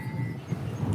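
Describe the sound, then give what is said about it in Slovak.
Strong wind blows steadily across the microphone atop a 21-metre former water tower, on a floor 17 metres up: a loud, continuous low rumble with gusty buffeting and no voices. “Riadne vám to fučí ináč.”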